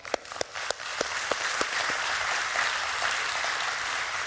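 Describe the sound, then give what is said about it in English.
An audience at Christ Church breaks into applause for setting a record with Food for the Hungry for the most children sponsored by a church, a few sharp separate claps at first quickly swelling into steady, dense clapping that holds at full strength for several seconds. “And I think we need to applaud that.”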